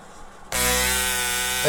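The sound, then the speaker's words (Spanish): A small motorbike with no muffler suddenly roars in after a moment of quiet, holding a loud, harsh, buzzing drone that swells slightly at the very end. “Estas motitos sin escape.”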